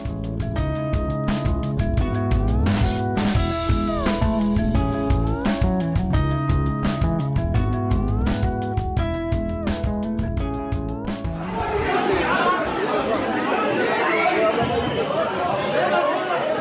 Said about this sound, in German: Sie da hören, das ist die Schlägerei, die jüngst im georgischen Parlament stattgefunden hat. Auf dem Video, da sieht man, wie mehrere ältere Herren in Anzügen sich gegenseitig niederringen.